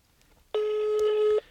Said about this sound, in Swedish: Men eh, nu, vi ringer andra personen bara.